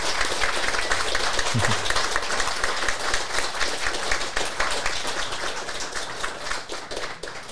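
A large audience, asked to stand, gives a standing ovation, clapping steadily and densely for the whole stretch, a continuous wash of many hands applauding with no talking over it.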